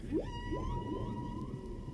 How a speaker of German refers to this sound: Bei den Walen nicht. Bei den Walen geht sie von der Lunge in den Kehlsack rein und von den Kehlsack zurück. Und so können sie singen ununterbrochen eine halbe Stunde.